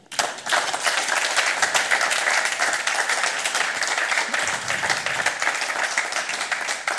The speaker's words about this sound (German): Vielen Dank. Applaus bitte.